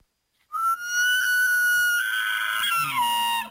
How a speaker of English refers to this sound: Last night we played you this. Here's the elk noise.